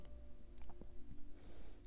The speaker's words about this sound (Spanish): Estoy respirando